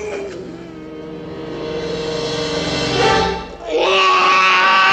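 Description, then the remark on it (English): A classic horror-movie scream: one long, loud, sustained shriek that climbs in pitch, breaks off for a split second, then comes back even higher and shriller. “Oh, that is a classic scream right there.”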